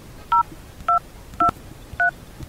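Telephone keypad dialing a call to the Council of Agriculture: about five short, dual-tone beeps pressed at a steady, even pace, each clear and fairly loud over a quiet background, with no one speaking.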